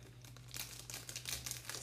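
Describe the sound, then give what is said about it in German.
Crisp crinkling of a plastic sleeve as the last card is slid inside, a run of rustling bursts over about two seconds above a faint steady hum, with no voices. “So, eingetütet.”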